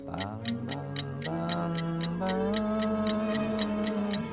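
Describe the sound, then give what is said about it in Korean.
A clock-ticking sound effect, played by the production crew as a cue for a rhythm game, ticks steadily in crisp, evenly spaced clicks, about four per second, heard clearly over a sustained, gliding musical tone underneath. “감독님, 한 번 틀어봐 주세요. 예. 자, 저희가 한 번 갈게요. 째깍째깍 하고,”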